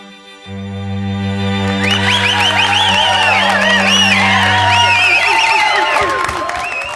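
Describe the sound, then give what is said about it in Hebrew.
At the end of a song on a studio recording, the band's final sustained chord rings out while the band members whoop and cheer over it, then break into a burst of clapping and shouting for themselves that fades at the end. “עד הסוף, שבו, בלי למצמץ, הם מוחאים לעצמם כפיים, זאת קלטת אולפן.”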